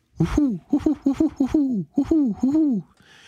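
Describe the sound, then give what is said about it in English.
A fairly loud voice imitates a great horned owl, giving a rhythmic run of about eight deep hoots, each sliding slightly downward in pitch, then stopping. “That's your great horned owl.”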